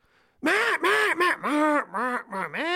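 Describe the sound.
A duck call gives a rapid, loud run of about eight raspy quacks, each one bending in pitch, with no talking over them.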